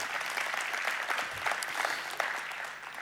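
An audience applauds a guest being welcomed, steadily, a dense wash of many hands clapping at an even, fairly loud level throughout, with no voices standing out.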